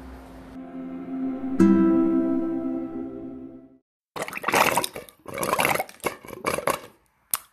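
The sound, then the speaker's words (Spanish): Water pours steadily with a hollow, ringing tone, then briefly stops and returns as irregular sputtering gurgles as the flow runs out. Moderately loud, with no talking. “Ah, se terminó el agua.”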